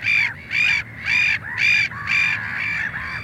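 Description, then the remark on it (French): Harsh, raucous calls of a black-headed gull repeat in a steady rhythm, about five loud squawks in quick succession, then a trailing sixth, clear with no talking. “Le nom mouette vient de l'ancien français mio, qui a donné miauler, une référence à son cri.”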